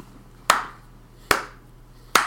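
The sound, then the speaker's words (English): A slow clap: three single, sharp hand claps spaced evenly about eight-tenths of a second apart, each ringing briefly before fading, with no voices in between. “I get a slow clap.”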